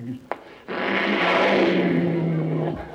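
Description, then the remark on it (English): A sharp click, then a Cadillac's engine roars to life and revs loudly and steadily for about two seconds before cutting off abruptly. “Now, dear, get into the Cadillac and just go around once.”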